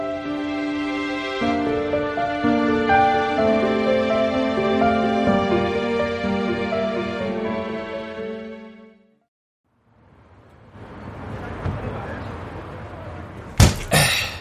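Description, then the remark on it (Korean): A person talks at length, then after a short pause comes some rustling movement as someone gets out of a car at a highway rest stop on a clear, sunny day, and a single loud, sharp car door slam near the end. “유주는 차에서 내려 탁 소리 나게 문을 닫으며 말했다.”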